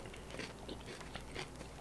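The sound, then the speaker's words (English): Crisp crunching of someone chewing raw vegetables, with repeated bites snapping in an uneven rhythm and no talking over it. “They know we eating vegetables. So crunchy, crunchy, crunchy.”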